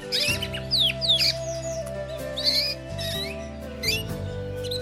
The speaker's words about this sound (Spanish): Un día, creyó enloquecer de alegría cuando unos canarios pasaron cantando en una jaula que conducía un hombre.